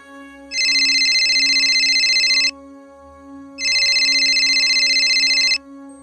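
A telephone rings in two long, even bursts separated by a short pause, a bright trilling bell that is loud, with a faint low hum underneath and no voices; it is a call from the police to a home.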